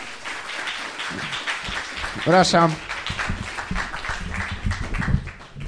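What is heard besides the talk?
applause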